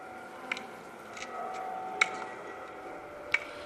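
A walking cane, held by Hansen's disease patients who had lost their sight as they went to cathedral or church, taps on hard ground a few times at irregular intervals, sharp distinct knocks with some softer ones between, over a faint steady background hum.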